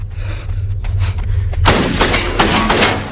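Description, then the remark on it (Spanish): Several sharp gunshots crack out in quick succession, loud, following a lower rumbling stretch with scattered thuds. No one speaks. Lisbeth is shooting at Ronald, who dodges the bullets by hiding behind his car. “Ronald corre de nuevo al coche y esquiva las balas escondiéndose tras él.”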